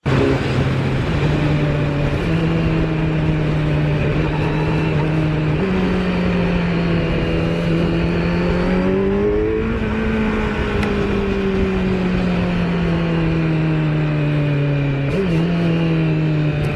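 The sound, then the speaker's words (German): A motorcycle engine drones steadily and loudly, its pitch stepping abruptly several times as it shifts up through gears without the clutch, revving between shifts with no talking. “Ja gut, das ist jetzt der Sound, wenn man ohne äh, Kupplung schaltet.”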